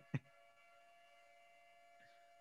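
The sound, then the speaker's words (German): A faint, steady alarm siren, a Corona alarm, holds a constant pitch throughout, briefly interrupted near the start by a sharp bump. “Ist, ist eine Sirene. Ist eine, aber eine sehr leise. Ich hoffe, eine sehr leise Sirene.”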